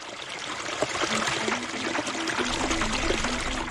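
Water pours steadily from an open tap, a continuous splashing rush with a slight gurgling pitch, running unbroken for a few seconds with no voices.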